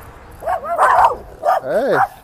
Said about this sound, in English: Hey. wow, the dogs are fierce.